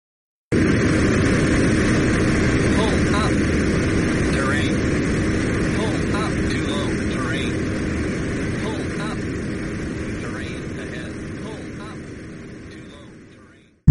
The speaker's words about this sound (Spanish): la cabina, se activa automáticamente el aviso sonoro que indica que el avión se encuentra peligrosamente cercano a tierra.